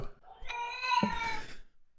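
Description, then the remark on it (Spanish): A cat lets out one long, drawn-out meow lasting about a second, fairly loud, with a low thump partway through and no talking. “Yo creo que este gato, por favor, o sea, grábale, da unos discursos.”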